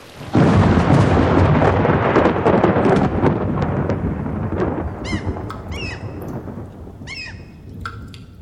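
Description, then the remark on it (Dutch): Loud, steady downpour with a deep rumbling wash, easing off slightly after a few seconds, while a handful of short, high-pitched squeaks and chirps cut through near the end. “Jammer dat het regende.”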